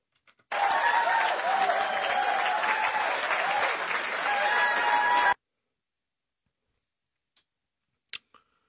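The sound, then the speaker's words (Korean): Steady audience applause marking the 30th anniversary of Korea–China diplomatic relations, a dense wash of many hands clapping for about five seconds before stopping abruptly, followed by silence and a couple of faint clicks. “박수.”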